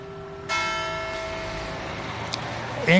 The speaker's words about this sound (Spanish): Ah, sí, mira, si hay campanas. Qué bonito. Ahí están las campanas de las 11 de la mañana, no, de las 6 de la tarde